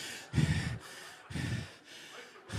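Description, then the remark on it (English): A voice imitates loud snoring: two rough, rattling low snores with breathy exhales between them, and a third snore just starting at the end, in a steady slow rhythm. “And baby, you're rocking out some logs.”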